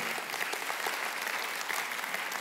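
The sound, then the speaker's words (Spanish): An audience claps together in steady, dense applause to the Lord, a bright crackling wash of many hands that holds at an even level for a couple of seconds without any voices. “Entonces, sí, pues podemos dar un fuerte aplauso al Señor por eso.”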